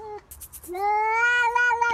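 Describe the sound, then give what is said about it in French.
A neighbours' cat at a window gives a brief chirp, then a few soft rustling taps, followed by a long, drawn-out meow that rises and wavers, loud with no other voices. “Le chat des voisins qui miaule à la fenêtre parce qu'il veut rentrer chez toi, par exemple.”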